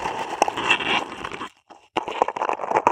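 Loud scratchy scrubbing of a dish brush against a contact microphone as the microphone is being cleaned, dense bristly friction with crackling bursts, a brief pause in the middle, then the scrubbing resumes. No one speaks.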